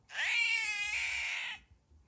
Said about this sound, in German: Scream. Cat Scream.